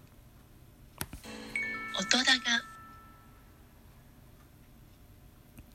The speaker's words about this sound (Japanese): 続きまして、音高のサウンドロゴです。